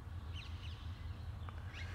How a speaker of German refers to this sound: Und da sind sie, die Sittiche. Sittiche, wie heißen die denn, die, die Vögel? Ha grüne Halsbandsittiche oder irgend sowas?